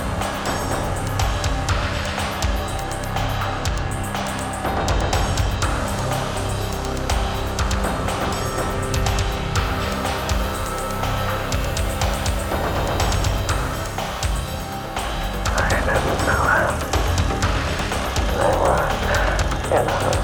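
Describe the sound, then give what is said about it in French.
A dark electro track by a German artist plays loud and dense, with harsh industrial textures, clanging percussive hits and heavily processed, distorted layers running continuously for the whole stretch. “et on navigue en pleine dark électro type … …, et ça a le mérite d'être très très bien fait.”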